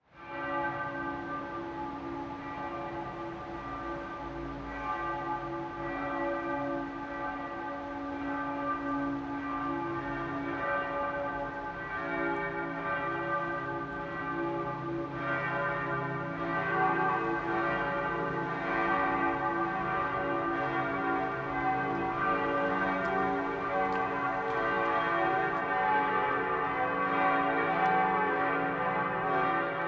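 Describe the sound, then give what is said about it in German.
Church bells of the Evangelical Lutheran Christ Church in Landshut, Lower Bavaria, Germany, ring out the 12 o'clock midday peal, several bells overlapping in a steady, continuous wash of tolling that stays full and loud throughout, with no voices. “Das Mittagsläuten kommt heute von der evangelisch-lutherischen Christuskirche im niederbayerischen Landshut.”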